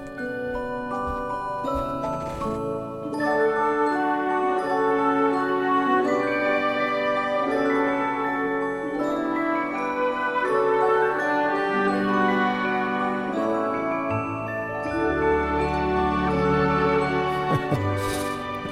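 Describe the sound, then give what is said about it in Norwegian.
Orchestral film-score music from the film Home Alone, played in the background on Radio Norge, with bright, tinkling bell tones layered over sustained strings, playing steadily at a moderate volume, swelling slightly toward the end with no voices. “Nå tenkte jeg skulle sette på noen toner i bakgrunnen, og så kan dere ha, kan dere ha en liten minikviss hva dette er for noe.”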